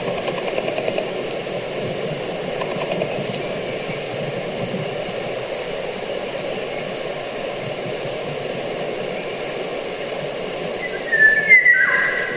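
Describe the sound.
A brief whistled phrase imitating a golden oriole's fluty song rises near the end, standing out over a steady background hiss and hum. No one speaks.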